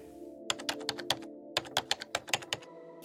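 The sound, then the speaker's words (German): Keyboard typing as someone writes an email to a tantra yoga institute, in two quick bursts of sharp clicks with a short pause between, over a steady low hum. No one speaks. “Ich gebe mir einen Ruck und schreibe eine Mail.”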